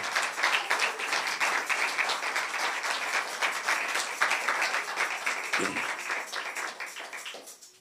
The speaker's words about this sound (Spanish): denle un fuerte aplauso al Señor.